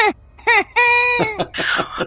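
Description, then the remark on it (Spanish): A drawn-out, voiced yawn from a person during their introduction, with a whining, moaning tone, broken into a few short rising-and-falling squeaks followed by a longer sustained high note, fairly loud and with no talking. “Porque no te había interrumpido en tu presentación y tú has bostezado.”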